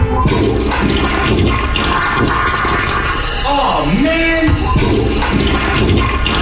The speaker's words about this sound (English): A double flush production.